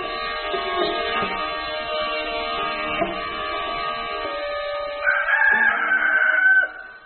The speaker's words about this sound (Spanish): El canto de un gallo lo despierta antes del amanecer